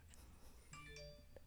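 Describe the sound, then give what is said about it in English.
A short phone notification chime from a Postmates app alert rings out, two bright bell-like tones in quick succession that ring briefly and fade, heard fairly softly with no talking. “oh, and that's my phone that I did not put on do not disturb mode.”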